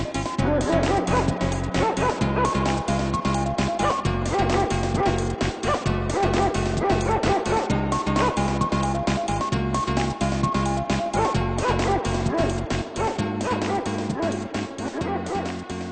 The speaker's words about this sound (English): There's also a part in the game where an NPC introduces their singing dog and asks if you want to hear it, and this is the result.